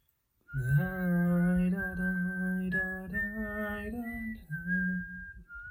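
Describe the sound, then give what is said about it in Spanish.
A single voice hums or sings a cheerful, bouncy tune in place of whistling, the same short melodic phrase repeating steadily, clear with no other sounds. “Me estaba sonriendo mientras me saludaba y silbaba una alegre tonada, la misma melodía que he repetido en todos los eventos importantes de mi vida una tonada que va más o menos así y básicamente se repite una y otra vez.”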